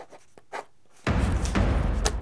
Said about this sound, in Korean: 거실 벽에 부착되어 있는 커다란 전지에 이정훈이 글씨와 그림을 그리기 시작한다. 이번 택은 그러면서 이정훈이 전지의 볼펜으로 민정당 중앙정치연수원이라고 쓴다.